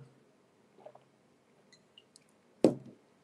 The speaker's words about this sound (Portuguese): Então, é, tô nem ligando, tomando água, morrendo de sede, mas vamos que vamos.